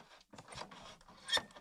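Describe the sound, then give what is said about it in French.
A small adjustment wheel is turned up and down, making a few short, quiet scraping clicks in brief irregular bursts, with one slightly louder rasp near the end. “Et là, donc j'ai la petite molette”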